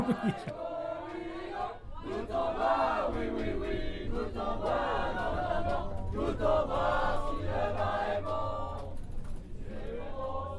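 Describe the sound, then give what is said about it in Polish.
A group of people sings together loudly and continuously inside a tram, many voices blending into a rowdy chorus over a steady low rumble of the moving vehicle. “I jeszcze się okazało, że oni w pewnym momencie zaczęli śpiewać i akurat skończyli tuż przed przystankiem, więc mogłem z czystym sumieniem wysiąść z tramwaju.”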